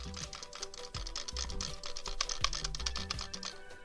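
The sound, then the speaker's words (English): Rapid, steady clicking on the cookie image in the game Cookie Clicker, dozens of sharp clicks in quick succession, with a low musical hum underneath and no talking. “you probably know that's a click sound.”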